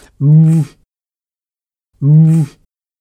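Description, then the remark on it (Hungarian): A person imitates the booming call of a Eurasian bittern, a large heron-like bird of reedbeds, with two deep, resonant hoots spaced about two seconds apart, loud, separated by silence. “Ez a bölömbikának a hangja, az egyik legelképesztőbb hang.”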